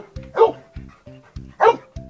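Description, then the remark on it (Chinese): A search and rescue dog gives two loud, sharp barks about a second apart, signalling that it has confirmed a person is there, with softer low, rhythmic sounds pulsing in the gaps between them. “另外，在训导员发出 search 指令后，search，search，搜救犬虽然表现得很兴奋，但在没有找到目标之前，它们都一声不吭，直到确认这里有人后，才开始汪汪汪发出信号。”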